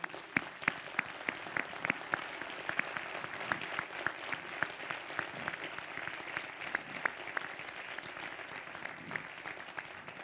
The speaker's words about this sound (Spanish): Dale un fuerte aplauso, muy bien.